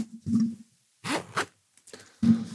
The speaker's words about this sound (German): Ja, man hört den Reißverschluss ganz gut.